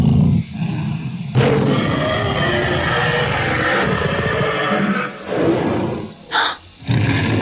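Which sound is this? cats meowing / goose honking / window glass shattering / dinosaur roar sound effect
dinosaur roar sound effect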